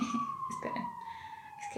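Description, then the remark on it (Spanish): An alarm siren sounds a loud, sustained high tone that drifts slowly downward in pitch throughout, with faint snatches of a voice underneath. “Hay una alarma, una disculpita.”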